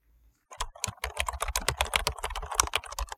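Rapid keyboard typing, a quick run of crisp key clicks for about three seconds as someone types the Toyota website address toyota.com, with no voices.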